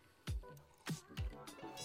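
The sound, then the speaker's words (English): Drop Tine spirits being poured from a bottle, with three gurgling glugs at an uneven rhythm and a soft liquid splash between them; nobody talks. “And uh, and I just poured up some drop tine spirits, by the way.”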